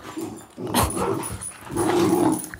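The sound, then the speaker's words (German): Puppies, including a terrier, growl and bark in a rough, continuous tussle while playing, with snarling bursts and a couple of sharper yips breaking through the steady rumbling. “Also es klingt jetzt dramatisch, die spielen aber gerade.”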